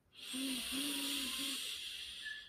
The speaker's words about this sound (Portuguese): Faço uma respiração profunda por três vezes. Mais uma.